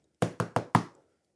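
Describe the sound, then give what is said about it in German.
Four firm knocks on a door in quick succession, fairly loud, each with a short dull thud and slight resonance, then silence. “Aber sie reagieren wieder nicht. Und das Klopfen wird lauter.”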